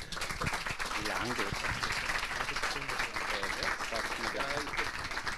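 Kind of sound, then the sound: crowd, audience applause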